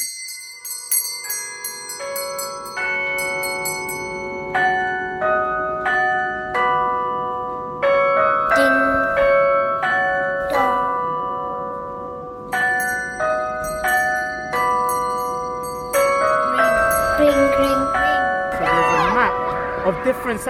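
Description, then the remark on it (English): Church bells peal in a steady, overlapping sequence of bright, ringing strikes, each tone hanging and decaying as the next one sounds, fairly loud with no voices. “The bells are 1700 in E. how to set the bell, how to ring them.”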